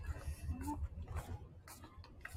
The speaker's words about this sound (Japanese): 誰か船が鳴ってるんだね、こう波でさ、動いてキュキュキュキュっつって。